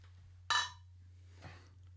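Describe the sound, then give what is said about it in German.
Beer bottles clink together in a toast: one bright knock with a short glassy ring, followed a second later by a softer tap, over a low steady hum. “Und jetzt sitzen wir halt mit dem Felddienst hier. Deswegen stoßen wir erstmal an, würde ich meinen.”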